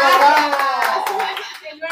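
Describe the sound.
A short burst of applause, with scattered claps from a small group, mixed in with a voice talking over it, moderately loud, fading slightly toward the end.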